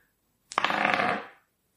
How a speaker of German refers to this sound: Würfel einfach mal ein W20er. Nochmal sicherheitshalber noch, ob es ein Fehlschlag wird.